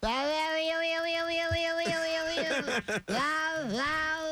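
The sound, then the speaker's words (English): A man's voice imitates a cat in a comedy act with a long, loud, drawn-out yowl, wavering and bending in pitch with a brief break near the end, heard alone. “I do that cat noise in my act.”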